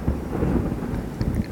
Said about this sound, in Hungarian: Na, dörög.